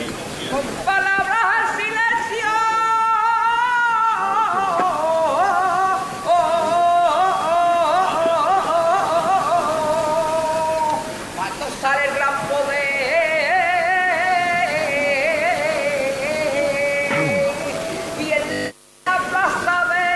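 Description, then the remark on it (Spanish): A solo voice sings a saeta during a Holy Week procession, as the float turns in front of the parish church of San Lorenzo, in long, wavering, ornamented phrases that bend and trill, carried over a constant hiss of crowd noise, with a brief cut near the end. “Sigue sonando la saeta.”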